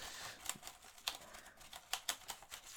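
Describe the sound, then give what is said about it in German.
Soft, quiet brushing as a computer keyboard is briefly brushed out, a steady bristly hiss broken by scattered light plastic clicks and taps as keys are swept, with no talking. “Einfach kurz ein bisschen ausbürsten.”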